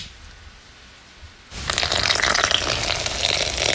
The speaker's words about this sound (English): That's pouring the water in, onto flour, which has gone up in price now.